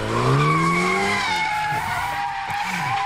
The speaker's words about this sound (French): Elle va nous le raconter, ce qu'on appelle le donut. En fait, on fait des tours à la voiture en forme d'un gâteau. Et là, vous dites que vous êtes vraiment avec un champion parce qu'il place la voiture absolument où il veut.